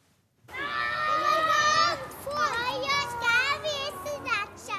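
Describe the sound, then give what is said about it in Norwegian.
Children play freely in a kindergarten in Tromsø, their high voices overlapping in squeals, calls and excited chatter, with steady bustle throughout and no adult speech standing out. “Ungene leker fritt i Bjerkaker barnehage i Tromsø.”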